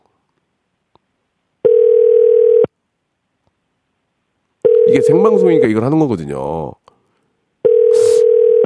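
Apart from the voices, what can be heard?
telephone ringback tone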